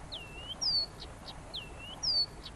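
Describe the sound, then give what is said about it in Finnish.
Blyth's reed warbler song, a clear phrase sung twice in a row: a slurred downward whistle, a sharp bright high note, then a couple of short clipped notes, with no voices. “Ja puolet jo pitkältä kuulee, että hetkinen, oliko se viitakerttunen.”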